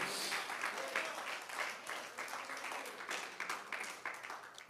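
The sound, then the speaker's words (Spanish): An audience applauds the Creator one morning, many hands clapping in a dense, continuous patter that holds fairly even in loudness for several seconds, with faint voices mixed underneath. “Bríndale ese aplauso al Creador en esta mañana.”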